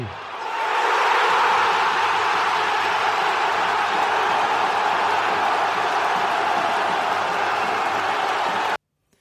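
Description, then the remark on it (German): A replayed recording of a large crowd cheering and roaring in a steady, dense wash of noise that swells in within the first second, holds loud for about eight seconds, then cuts off abruptly. “Hier kommt dein Jubel nochmal, obwohl wir ihn eben gerade schon mal gehört haben, aber er gehört ja nun auch in diese Kategorie.”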